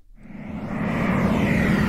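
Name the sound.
airplane engine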